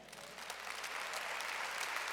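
An audience claps for the Lord during a Spanish-language sermon, a dense wash of many hands that swells slightly and holds at a fairly loud level for a couple of seconds.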